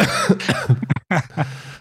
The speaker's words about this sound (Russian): я немножко болею кашлю, поэтому не обращайте внимания.